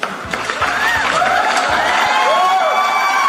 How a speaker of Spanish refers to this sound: Aplauso, aplauso.